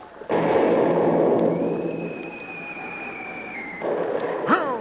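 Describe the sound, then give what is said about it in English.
An artillery shell fired at a fleeing boat bursts with a loud, sudden blast, trailing into a long rushing roar under a thin steady whistle, then a second, weaker burst of noise near the end. “By George, they're getting closer every shot.”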